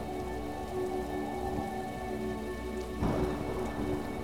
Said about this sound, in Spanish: Protegerte de la fría lluvia. No asustarte por cada trueno. Y no cegarte con la luz de cada relámpago.